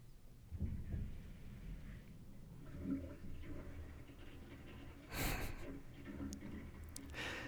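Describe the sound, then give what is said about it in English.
A toilet is flushed by the neighbours upstairs, its water rumbling low and muffled down the pipes in the wall of the next room, with a brief louder surge of rushing water partway through before it settles back to a dull flow. “My mates above just flushed. You can hear the entire water rolling down my back legs.”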